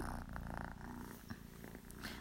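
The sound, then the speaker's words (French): A cat purrs steadily, a continuous low rumbling throughout with a few faint higher chirps and rustles over it, no talking. “Il en peut plus le chat. Oh, il en peut plus. Il fait des ronrons.”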